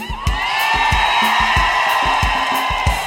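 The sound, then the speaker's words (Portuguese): A large live crowd at the Expo Inter, during a live DVD recording, roars and shouts in a loud, unbroken wall of sound, while a steady thumping beat pulses underneath throughout. “ao vivo na Expo Inter, me sopraram ali dizendo que estaria aqui essa noite, e aliás eu vou querer ouvir o grito daí, mas estaria aqui essa noite conosco para cantar o maior coral do Rio Grande.”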